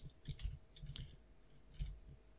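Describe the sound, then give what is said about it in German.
Soft typing on a computer keyboard past a microphone while searching for the smallest town in Germany: a few quick keystrokes in small irregular bursts with short pauses between, quiet, and no voices. “Äh, ich muss am Mikrofon vorbei tippen und dann gucken wir mal.”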